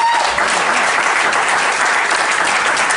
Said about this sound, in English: cool venue, lots of people. That's good. Look at that. They're all clapping.